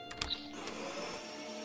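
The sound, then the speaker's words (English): A vacuum cleaner runs steadily, a continuous motor whine with a few clicks and bumps at the start, no voices over it. “Yeah, just uh, need to do a little vacuum in here.”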